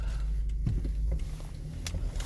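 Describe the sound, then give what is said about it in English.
A car's engine hums low and steady from inside the vehicle as it creeps slowly through traffic in a parking lot, with a few soft clicks and brief rustles over the rumble. “And boy, I need it because now I'm stuck in a weird traffic situation in this uh, awful parking lot”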